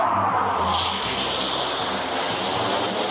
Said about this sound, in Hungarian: a pilóták 14 és 21 óra között hajtják végre a repülési feladatokat